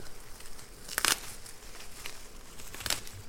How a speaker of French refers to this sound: Donc, euh, sur celui-là, elles sont très bien séparées. Elles résistent pas trop à l'arrachage. moi, je ramasse toutes mes poignées et j'ai pas une feuille dans la main. Et donc en un seul geste, on arrive à ramasser le tilleul.